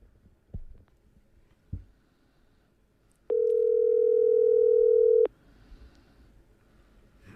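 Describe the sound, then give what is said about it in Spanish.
A telephone call ringing tone: one steady, loud electronic beep held for about two seconds, preceded by a couple of soft thumps and quiet room noise, with no one speaking. “Pitidos.”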